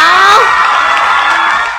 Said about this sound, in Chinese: 不过好在它的这个直播平台是可以随意添加音效的。等过一过呢，我去找着我之前莫说电商的一个音效的这个文件夹，然后我就可以在这里面跟大家用我熟悉的音效啦。好，鼓掌。